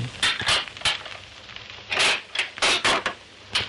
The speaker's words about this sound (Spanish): En ese momento oye la puerta y sale precipitadamente del salón.